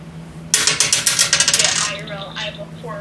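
Dice rolled by a player in a tabletop role-playing game clatter across a hard table in a quick burst of bright, rattling clicks that slow and settle over about a second and a half, over a low steady hum.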